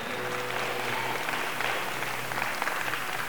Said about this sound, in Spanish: Mira, ahí en Isaías 43, si le vas a aplaudir al Señor, que sea con ganas con ánimo. Él es digno, amén.